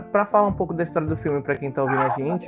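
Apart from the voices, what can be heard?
dog barking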